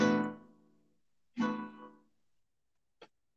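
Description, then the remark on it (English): Two ringing acoustic guitar strums on open strings with no capo, each letting the chord decay for about a second, followed by a faint click. No voices. “Because seven sounds like this.”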